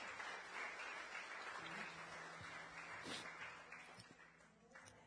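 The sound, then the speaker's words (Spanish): A church audience applauding together during a sermon to give glory to the Lord, a dense, steady wash of many hands clapping that holds for several seconds before easing off slightly near the end. “Denle un aplauso y déle la gloria al Señor.”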